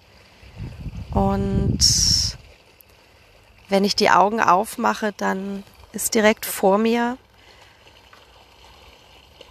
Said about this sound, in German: Du hörst im Hintergrund das Plätschern des Pools.